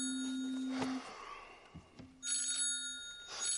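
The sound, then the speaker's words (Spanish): Salvador's phone rings while he is reading, in two bursts of bright, rapidly trilling bell tones with high metallic overtones, separated by a pause, over a steady low hum; no one speaks. “Más tarde, Salvador está leyendo cuando suena su teléfono.”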